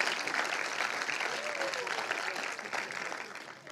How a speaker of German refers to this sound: Einen Applaus, weil das war echt der Hammer.